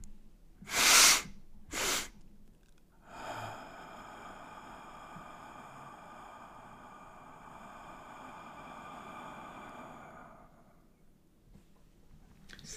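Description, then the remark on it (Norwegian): Two sharp, forceful breaths come close together, followed by a long, steady droning exhale that fades after several seconds, as a demonstration of a breathing technique. No one speaks. “Og det setter jeg kjenner at jeg puster med deg.”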